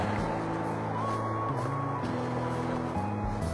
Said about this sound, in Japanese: 車がすごいな今日は右車線を走ってるのであ右の歩道を歩いてるので車が前から向かってきてずっとうるさいですねやっぱ左に渡った方が良さそうですねえ